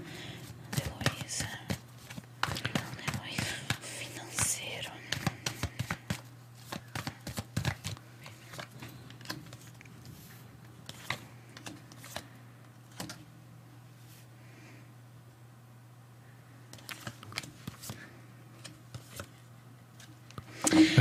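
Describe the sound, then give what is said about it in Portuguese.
A deck of cards being shuffled: a dense flurry of papery flicks and snaps for several seconds, then scattered taps, a brief second burst, and a steady low hum underneath. “Vou embaralhar.”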